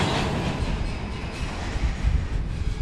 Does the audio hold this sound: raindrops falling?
no